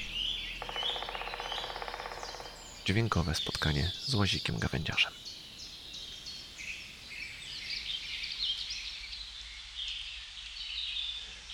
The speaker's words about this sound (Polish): Nie ma to jak świt w lesie.